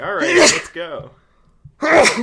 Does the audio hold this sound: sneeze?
yes